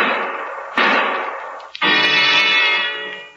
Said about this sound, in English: The shots that Bert Macklin was waiting to hear